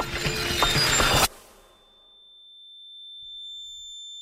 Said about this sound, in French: N'ajustez pas votre appareil. Ce silement correspond à l'un des sons que 80 000 Québécois entendent en permanence. Ce bruit constant et lancinant, appelé un acouphène ou son fantôme, peut entraîner des problèmes de sommeil